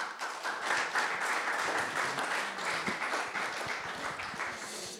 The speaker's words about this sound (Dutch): Applaus.